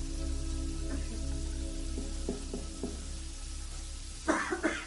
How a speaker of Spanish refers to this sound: … vomita sentado en el suelo ante el inodoro de su casa con el grifo del lavabo abierto.